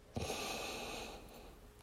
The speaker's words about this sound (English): If you are listening to me right now, I want you to take a deep breath in through your nose,